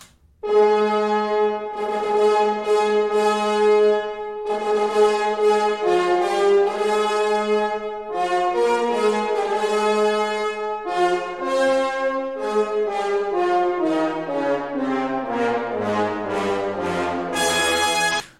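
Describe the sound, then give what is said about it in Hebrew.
The fate motif of Tchaikovsky's Fourth Symphony: a powerful orchestral brass fanfare plays loud, sustained chords in bold repeated blasts, then a line slides downward toward the end. The music is full, with no voices. “זה מוטיב הגורל של הסימפוניה הרביעית של צ'ייקובסקי, מוטיב מאוד חזק שבגלל שהוא כזה, הוא בכלל משתלט על כל המבנה של הפרק וגם של הסיום, אבל בעיקר של הפרק הראשון.”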